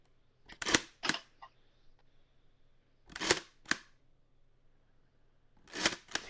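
A large film camera's shutter is cocked and fired three times, each a crisp pair of mechanical clacks, fairly loud, with quiet pauses between rounds.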